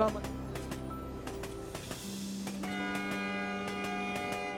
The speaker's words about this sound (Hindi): train ने speed पकड़ ली थी अब फिर ट्रेन धीरे हो गई है झटके मार रही है हो सकता है कि मेरे पीछे आपको लोगों की और ट्रेन की आवाज़ आ रही होगी